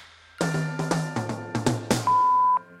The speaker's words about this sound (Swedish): Rulla telefonsvararen.